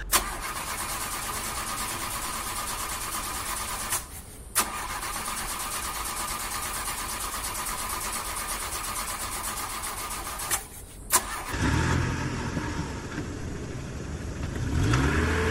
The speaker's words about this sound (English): … drives off.